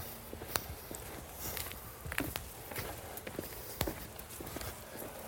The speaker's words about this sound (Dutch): maar ik, ik vind de simpelheid van zo'n pad, hè. ik bedoel, we lopen, waar lopen hier nou? Hè? Dus er ligt een bruggetje. Dat is, je hebt het pad en je hebt hier 50 centimeter wat gemaaid, zodat je tussen de weilanden en tussen het bos door kan lopen